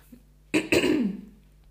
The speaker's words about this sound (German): Es tut mir leid, wenn ich mich ab und zu mal so räusper. Ich lasse das jetzt auch drin. Ähm, habe ich irgendwie gerade aktuell muss ich halt mich manchmal räuspern.